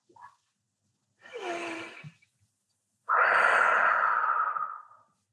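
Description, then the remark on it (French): A boy draws a deep breath in through his nose with a soft, airy rush, inflating his belly, then after a brief pause blows out a long, steady exhale to deflate it, loud. No one speaks. “Il inspire en gonflant son ventre, puis souffle pour dégonfler comme un ballon.”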